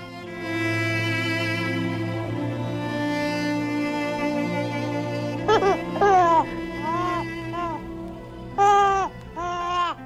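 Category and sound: human body sound, newborn baby crying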